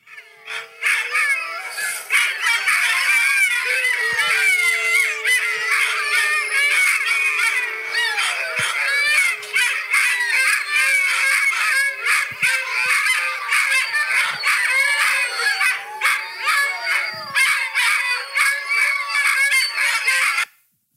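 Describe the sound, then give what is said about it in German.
A large pack of sled dogs (huskies) howls and yelps together in a dense, overlapping chorus, loud, continuing unbroken for about twenty seconds with no one talking. “Die haben da die ganze Zeit also, geheult.”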